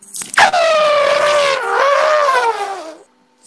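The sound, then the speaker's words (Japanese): A person imitates an elephant trumpeting: one loud, sustained, brassy blare with a bright pitch that dips and wavers, lasting nearly three seconds before cutting off. “ゾウお願いします。ゾウの真似。”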